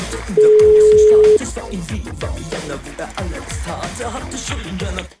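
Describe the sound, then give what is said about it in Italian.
A steady, clear telephone tone hums for about a second near the start as a call is dialed to call someone back, followed by a dense, busy mix of rhythmic sound that runs to the end. “Sentiamo se li proviamo a richiamare.”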